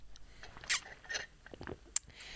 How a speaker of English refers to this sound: So, oh God, it's there's nothing I hate more than the sound of a fucking swallow through a straw. Good lord, that's enraging.